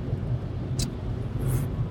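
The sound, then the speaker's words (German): Steady, heavy road rumble from a car cruising at speed on the Autobahn in snow and rain, with a constant low drone and a couple of brief hissing swishes like spray from a wet road. “ja, auf der Autobahn ist es schneit, Regen, Wasser äh, und alles.”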